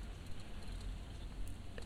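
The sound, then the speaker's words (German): Steady rain patters densely on the thin roof of a camper van, a continuous hiss of drops with occasional sharper taps and no voices. “Ich glaube, der Regen demonstriert das momentan ganz schön.”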